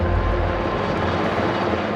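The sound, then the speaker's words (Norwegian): A helicopter leaving the White House roars loudly with a heavy, steady engine drone and no voices, its deep low rumble thinning slightly as it starts moving away. “Han dro fra Det hvite hus i helikopter, skadeskutt av dårlige meningsmålinger og anklaga for å ha oppfordra til statskupp.”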